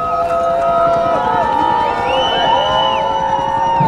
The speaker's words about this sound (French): C'est une petite euh, hola pour l'arrivée de l'hélicoptère. L'hélicoptère est vraiment juste au-dessus de nous, très très bas.